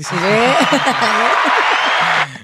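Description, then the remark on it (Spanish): An applause sound effect: a dense, steady wash of clapping with voices whooping and cheering over it, holding at full level for about two seconds before cutting off abruptly. “le, mete el aplauso, ¿no?”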